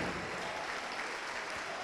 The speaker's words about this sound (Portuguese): Vem, vem, vem, vamos aplaudir ao Senhor Jesus por cada vida que está chegando. Vamos aplaudir mais, igreja.